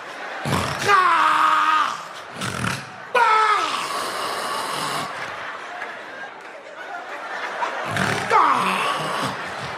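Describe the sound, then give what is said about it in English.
A man imitates loud, rasping snores with his voice, three throaty bursts spaced a few seconds apart over a murmur of background chatter. “I snore like a man. I snore.”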